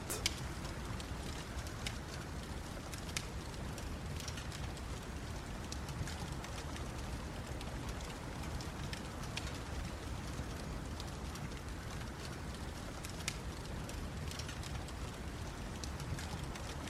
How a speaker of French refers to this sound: À environ 2 mètres devant vous, un petit feu de cheminée vous réchauffe. vous entendez le bois qui crépite.